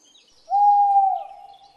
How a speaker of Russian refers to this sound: Вот и сова вам горе кличет.